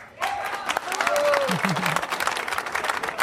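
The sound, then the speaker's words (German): An audience bursts into dense, steady applause lasting about three seconds, with a few brief voices and cheers rising above the clapping. “Da kann man wirklich nur Beifall klatschen.”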